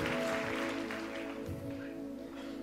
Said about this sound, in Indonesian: Kemudian berikan tepuk tangan bagi nama Tuhan.